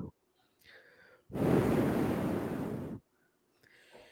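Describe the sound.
A person imitates blowing wind live on the Globo Tradição programme, as a dramatic demonstration of the force of the wind, with one loud, sustained whoosh of breath lasting under two seconds, framed by quieter faint sounds before and after.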